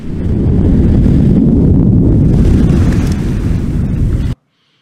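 A volcanic eruption roars as a loud, continuous deep rumble, heavy and turbulent for about four seconds, then cuts off abruptly into silence. No voices are heard.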